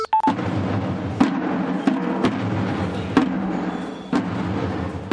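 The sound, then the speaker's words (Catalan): A Holy Week (Easter) procession of the Manaies of Girona, Catalonia: costumed Roman soldiers marching, with a dense, steady rumble of movement punctuated by sharp percussive strikes every second or so, loud. “A veure, això és una de les moltes processons que es fan aquests dies a Catalunya, en concret és el so dels Manalles de Girona.”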